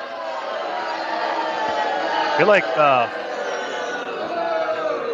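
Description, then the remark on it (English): A studio audience boos steadily through the whole stretch, a dense, rumbling crowd sound, while a man's voice briefly speaks over it midway. “All of you, everybody gets booed.”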